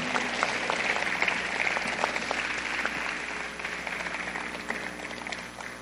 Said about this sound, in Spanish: Muchas gracias. Pues Den un aplauso bien fuerte a los tres.